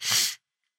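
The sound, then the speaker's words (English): A single sharp cough, a loud, harsh burst of breath lasting about a third of a second, followed by silence. No talking. “I really apologize for all the coughing.”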